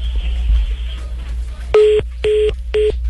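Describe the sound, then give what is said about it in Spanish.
Three loud, steady electronic payphone beeps, each about a quarter second long and evenly spaced, signaling coin credit running out, following a brief stretch of low background noise on a phone line. “Ah, se le acabó la monedita, ah.”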